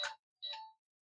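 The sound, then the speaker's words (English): A phone notification ding: two quick bright chime tones, the second slightly longer and ringing out, heard on their own with no talking. “That's my phone.”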